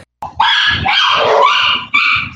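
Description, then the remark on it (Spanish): A dog lets out loud, drawn-out playful barks while playing and biting at a person's hand, one long strained burst followed by a shorter one, with no talking over them. “poco sassy como mi perro”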